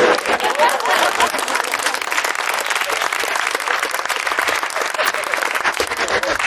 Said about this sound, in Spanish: Sí, sí, sí, No, no aplaudáis eso, ¿eh?